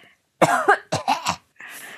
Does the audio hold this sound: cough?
yes